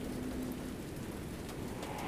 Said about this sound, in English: Suddenly, the only sounds were Aaron's muted voice and the angry pattering of rain.